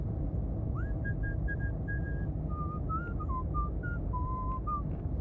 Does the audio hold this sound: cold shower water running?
no